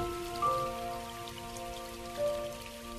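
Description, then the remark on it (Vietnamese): Soft, steady patter of raindrops on the roof of a quiet house, a quiet continuous sprinkle with the faint steady hum of a fan beneath it and no voices. “những hạt mưa đã bắt đầu lợp đột trên mái Xây nhà lành lặng và yên ắng Chỉ còn tiếng quạt nhẹ nhẹ”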